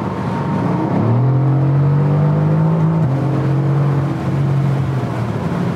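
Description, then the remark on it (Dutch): A Mercedes-AMG GT with a 4-litre, 557 hp V8 revs loudly through its switched-on sport exhaust while driving on the A2 motorway, the deep engine note climbing and holding, dipping briefly, then pulling again with a steady droning roar and no talking. “Ik even de sportuitlaat aanzetten. En nu even op het gas.”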